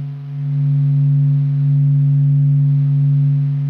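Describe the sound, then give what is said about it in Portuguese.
A steady, low electronic hum drones on without a break, a smooth sustained tone with faint overtones, moderately loud and unchanging: a sonified recording of the distant sun, representing its thermal vibrations. “Então, gente, se vocês estiverem ouvindo rindo, finjam que vocês estão ouvindo o som do sol distante, relaxante.”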